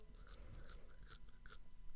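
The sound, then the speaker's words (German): Teeth grinding, a series of four or five short gritty scraping crunches at a steady pace, fairly quiet with no talking. “du knirschst die ganze Zeit so krass mit den Zähnen.”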